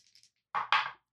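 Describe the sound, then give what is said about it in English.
Two quick clattering knocks land in fast succession on a hard surface as two glitter dice, one pinkish purple and sparkly, the other nebula-patterned, tumble and settle, showing a four and a three, followed by silence. “Okay, so I got a, a four and a three. So it's seven altogether.”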